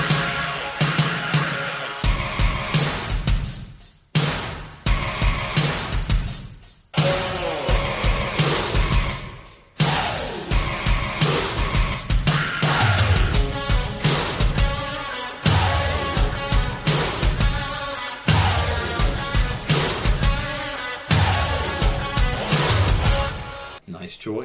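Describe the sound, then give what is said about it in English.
A loud rock song with pounding drums, dense guitars and sung vocals plays as ring entrance music for about twenty-five seconds, briefly dropping out a few times before surging back in. “We're gonna come to the ring to uh, …, the extended version”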